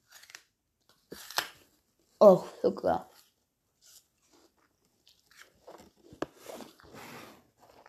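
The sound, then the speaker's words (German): A crisp bite into an apple, followed by a few wet, crunchy chewing sounds, with a brief spoken exclamation and some soft mouth noises between. “So, trinken, Apfel reinbeißen.”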